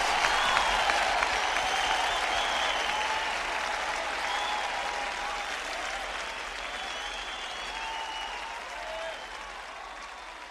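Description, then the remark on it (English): A live studio audience, real rather than an overdub, applauds steadily for about ten seconds, a dense wash of clapping that stays loud throughout and eases off only slightly toward the end, with faint voices mixed in. “That's a real live audience you heard, not an overdub.”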